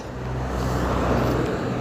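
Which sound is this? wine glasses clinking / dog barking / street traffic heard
street traffic heard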